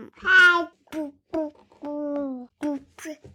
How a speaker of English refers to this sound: my son is awake. You can probably hear him calling for me in the background.